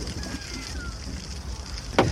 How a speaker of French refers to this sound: Tout ce, bruit qui ressemble à de la pluie sur un velux est en fait tous les invertébrés qui recouvrent le sol.